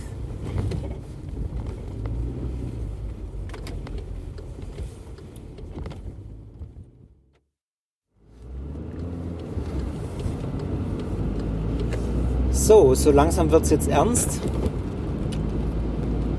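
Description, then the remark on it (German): Steady low road and engine rumble from inside a moving car driving in light rain on the way to a Kingdom Hall, with a man speaking over it; the sound cuts out briefly midway before the cabin drone returns. “Noch zwei Minuten, dann bin ich da. Ich werde das Mikrofon jetzt mal noch anlassen und dann unterwegs, wenn ich ausgestiegen bin aus dem Auto, auf dem Weg zum Königreichsaal ausmachen.”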